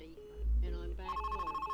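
A telephone rings on an answering machine with a rapid, pulsing electronic trill, steady, after a brief murmur of muffled sound at the start.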